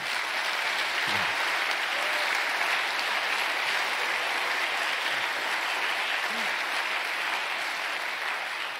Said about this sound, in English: Hey, I want, I want to, yeah, we can clap for Brian.